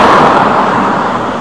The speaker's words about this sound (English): I don't know about you, but that sounded like a big truck passing